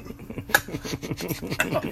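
household object, shot glasses clinking

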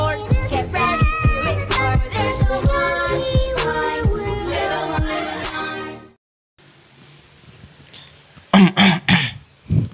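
human body sound, throat clearing

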